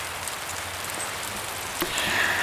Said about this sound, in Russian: Погода отвратительная. Мне холодно, у нас дождь, у нас гром.